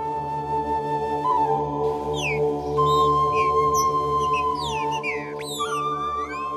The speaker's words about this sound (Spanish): Desde entonces, la gente siente temor cuando escucha el silbido de un ave chicúa.